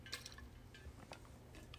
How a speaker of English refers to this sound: it's just like no like i'm fine i just need a sip of water